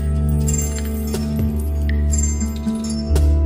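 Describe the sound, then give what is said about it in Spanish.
Coins clink against each other in a few bright, scattered metallic taps with short ringing tails, over a steady low background hum. “Y empieza a prestar atención a qué sensaciones se despiertan mientras tú vas recibiendo cada una de estas monedas.”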